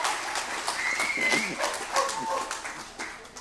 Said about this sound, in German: Jesus gebührt die Ehre. Das sind alles deine Gefäße, deshalb gebührt Jesus Applaus.